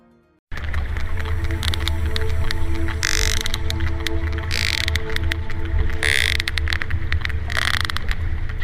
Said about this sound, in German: Dieses Geknatter stammt nicht von einem defekten elektronischen Bauteil. Es ist auch kein Morsecode. Nein, es handelt sich um die Kommunikation von Pottwalen. Diese Tiere nutzen Knacklaute, um per Echolot die Umgebung zu sondieren,